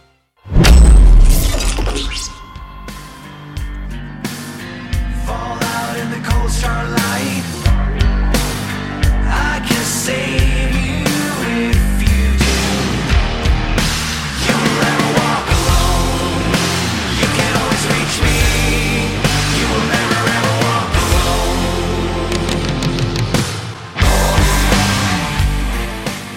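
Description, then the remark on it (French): A loud heavy rock song plays continuously with dense distorted guitars, a deep pounding low end and steady driving drums, the full band sustained at high volume throughout with no talking. “preuve en est avec ce … dont je vous propose d'écouter un extrait”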